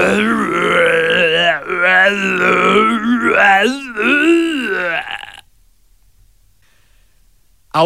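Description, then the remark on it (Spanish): A person imitates a tiger with a loud, rough growl that rises and falls for about five seconds, then stops abruptly into silence. “este rostro monstruoso es ahora el rostro de un tigre. Suena como un tigre, se parece a un tigre, entonces es un tigre.”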